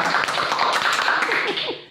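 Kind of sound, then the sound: crowd, clapping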